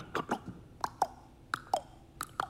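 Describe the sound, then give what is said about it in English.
A voice imitates the hooves of Queen Elizabeth II's carriage horses with tongue clicks: crisp, hollow clops falling in uneven pairs with a trotting rhythm, with no talking. “You could hear her horses for the carriage kind of”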